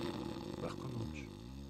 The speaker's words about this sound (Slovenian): Ta lačna glasno zasmrči.